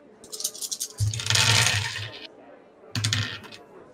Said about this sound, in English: I need I need all three of you to roll perception, please. Ooh, ooh, I'm rolling dice.